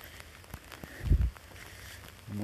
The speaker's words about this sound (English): So, all right, well, I'm supposed to have an hour of no rain. Well, that didn't happen.